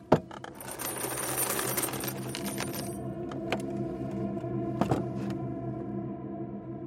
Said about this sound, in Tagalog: Ngunit saglit akong natigilan matapos marinig ang kakaibang ingay. Mga mabibigat, mababagal, at mahihinang mga yabag na waring may hila-hilang kadenang kumakaskas sa sahig.